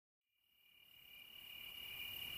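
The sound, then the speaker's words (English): Crickets chirp at night in late summer at a cabin in a steady, high-pitched continuous trill that fades in from silence and grows gradually louder, with no voices, just a dense chorus. “We're going to listen to the sound of crickets and a meditation on gratitude and letting go.”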